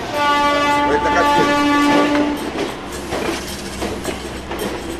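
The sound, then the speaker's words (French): A passenger train arrives with a loud, sustained horn blast over the first two seconds, followed by rumbling wheels and rail clatter continuing steadily. “C'est le train qui arrive.”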